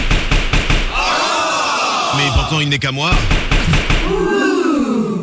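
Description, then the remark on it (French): A hammer knocks on a hard surface in a quick, rhythmic run of sharp strikes at the start, with a few more thuds later, while a man talks in a sing-song voice over it. “J'ai un marteau. Il est beau.”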